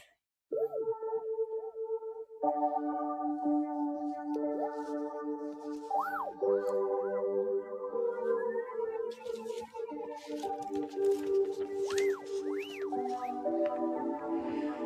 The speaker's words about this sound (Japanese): シンセサイザー。シンセサイザーで作ってくださったね。もう素晴らしい音楽です。